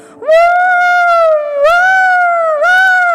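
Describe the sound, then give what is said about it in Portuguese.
A voice wails loudly and steadily in imitation of a siren sounding in heaven, holding a long rising-and-falling tone that dips and swells twice over a few seconds, with no other sounds. “No céu, parece que tocou uma sirene, os anjos começaram, meu Deus, Adão pecou, e agora?”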